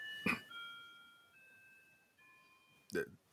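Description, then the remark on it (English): An ice cream truck's jingle drifts by, a faint, thin melody of sustained electronic notes stepping up and down in pitch, with two short bursts of voice at the start and end. “We have an have, ice cream truck going by.”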